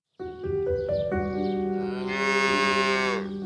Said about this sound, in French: Vous entendez C'est le bruit d'une innocente vache.